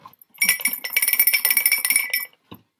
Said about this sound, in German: Du brauchst schon ordentlich Gerüttel, damit die, damit die auch vor sich hin bimmelt.